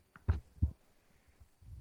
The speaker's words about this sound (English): Okay, I've got the batter in our silicone Bundt cake mold. Just kind of bouncing on the countertop here to get it all nice and level, mm-hmm.